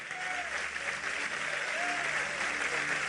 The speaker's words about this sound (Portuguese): Vamos aplaudir a Ele, vamos orar.